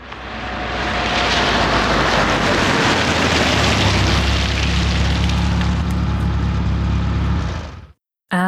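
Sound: street traffic noise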